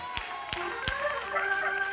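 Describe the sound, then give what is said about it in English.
An audience claps hands together in unison, three sharp claps in a steady rhythm, then fading into sustained voices and a busy room murmur. “So when we put our hands together and we begin to clap, it's letting the devil know I'm free from everything.”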